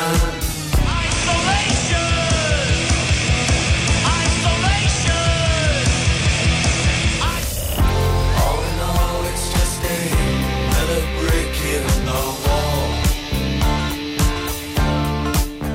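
A rock song plays loudly, driven by a steady pounding beat, then shifts about halfway through into a denser, busier section that carries on to the end.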